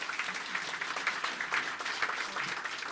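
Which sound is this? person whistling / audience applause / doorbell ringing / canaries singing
audience applause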